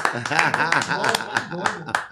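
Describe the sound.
Hands clap in applause in a steady run of sharp, separate claps, roughly three per second, over continuous voices talking or laughing.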